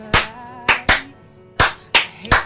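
A handful of sharp hand claps, about six, struck slowly and a little unevenly, loud, with no voices in between.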